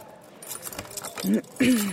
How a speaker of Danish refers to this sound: Nå, nu har jeg fået en nøgle. Nu låser jeg mig ind.